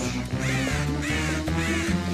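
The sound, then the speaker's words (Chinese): A crow caws three times in a steady rhythm, each call harsh and rising then falling in pitch, over a continuous backing of low, sustained music. “可是古怪的乌鸦来了”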